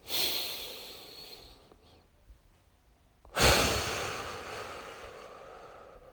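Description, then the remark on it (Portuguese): Slow, paced breathing, inhaling for three seconds and exhaling for three: a long airy breath, a quiet pause, then another strong breath that tapers off gradually. No talking. “Aí você vai para uma respiração de três segundos. E respira três, expira três.”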